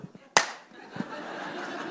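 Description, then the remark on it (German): One sharp, loud hand clap rings out and decays quickly, followed by a quieter soft thump; faint low voice sounds murmur around it. “Wenn jemand klatscht, dann wisst ihr. Das heißt, der Gag war, geht so.”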